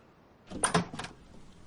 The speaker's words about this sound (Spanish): Mark abre la puerta.